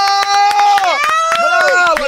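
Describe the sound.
An audience at the back and front claps for a teacher in quick, irregular bursts, loud, while a sustained, wavering tonal sound, like voices cheering or calling, carries over the applause throughout.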